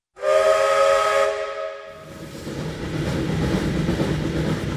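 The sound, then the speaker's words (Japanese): A loud steam train whistle blasts for about two seconds in a single rich, chordlike tone, then cuts off into a steady rumbling, hissing sound of the moving train. “そうして汽車に乗り、ぼうぼうとした平野を数時間走ると、コルドバの町に着きました。”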